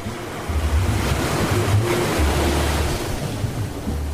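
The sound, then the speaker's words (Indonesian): Steady beach ambience on a sunny morning at Bengkak Beach, Wongsorejo, Banyuwangi, East Java, Indonesia, facing the Bali Strait: continuous rolling surf washing in, with gusty wind rumbling across the microphone, loud and unbroken throughout, no voices. “Pagi di Pantai Bengkak, Kecamatan Wongsorjo, Banyuwangi, Jawa Timur. Dari sini kita bisa melihat langsung Selat Bali.”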